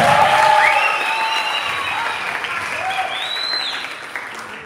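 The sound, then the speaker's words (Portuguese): An audience claps steadily in a dense, continuous wash of applause lasting several seconds for a young woman coming up to speak briefly about the previous day's worship service, with a few whistles and cheers rising above it before it gradually tapers off. “Dá uma salva de palmas para ela, né, pessoal?”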